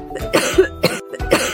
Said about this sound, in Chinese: 咳嗽，流鼻水。